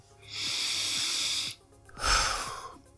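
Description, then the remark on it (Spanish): A single slow, deep breath: a long airy inhale of about a second, a short pause, then a fuller, breathy exhale that gradually fades out. “Antes de empezar, quiero que tomes una respiración profunda.”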